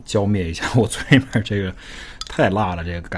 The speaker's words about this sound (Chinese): 先开瓶啤酒，今天来一瓶 h o g a r d e n 啊，没想到在这边还能买到 h o g a r d e n 之前在香港的时候经常喝这个。Cheers！